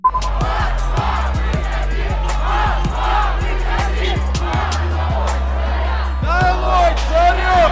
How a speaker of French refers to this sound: On les entend ici sur TV5 Monde chanter et soutenir l'ancien avocat de 44 ans et crier leur colère